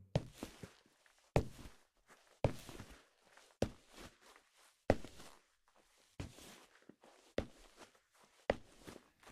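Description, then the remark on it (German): Slow, measured footsteps of a man walking along a line of household staff, about eight firm steps at an even pace, each a sharp tap with a brief scuff, with no voices. “Er schritt die Reihe dicht ab und erklärte seine Wünsche.”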